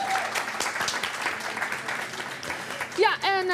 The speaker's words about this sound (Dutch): Mag een heel groot applaus